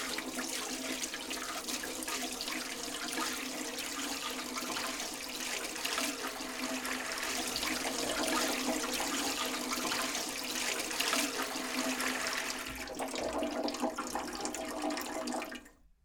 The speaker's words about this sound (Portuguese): Aproveite esse sabor e vá até a pia. Agora sinta a textura refrescante da água e lave seu rosto e suas mãos.